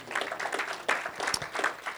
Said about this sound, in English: The, let's give the Lord a clap for that.